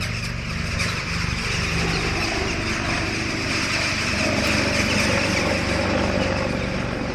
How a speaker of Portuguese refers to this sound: Kosovo significa melros, os pássaros que, ameias com os corvos, disputam os céus com o intruso, um helicóptero da NATO.